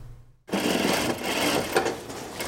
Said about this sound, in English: She manages the machine with her foot, sewing a hem along the edge of the material. It's a face mask with a traditional Hakka print, featuring the distinctive tung flower of Miao Li.